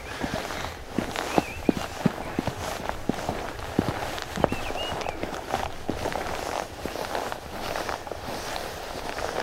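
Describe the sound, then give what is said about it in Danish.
Footsteps crunch and rustle as someone walks into a bush, in a steady walking rhythm, with scattered sharp snaps of twigs and leaves, while faint bird chirps sound in the background. “Oh, nu er jeg ved at gå ind i en busk her.”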